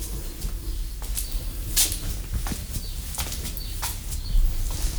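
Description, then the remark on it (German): Short, scattered bird chirps ring out at irregular intervals over a steady low outdoor rumble of car traffic. No one is talking. “Ja, ihr hört auch schon die Vögel und Autos.”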